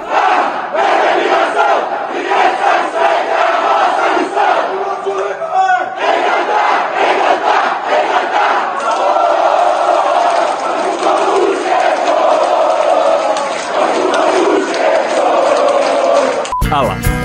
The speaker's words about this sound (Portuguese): Tem um agitador que tá puxando os gritos, tem a galera gritando e tem um cara lá no meio que dá pra você ver que ele, tá, que ele não tá motivado assim.